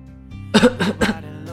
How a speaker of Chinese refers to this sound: 花儿咳嗽了一阵，但并不是由于感冒。